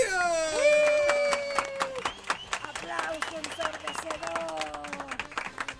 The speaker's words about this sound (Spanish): Sí, señores, sí, señora, los aplausos no son grabados esta vez porque nos acompañan los alumnos de la escuela Simón Bolívar.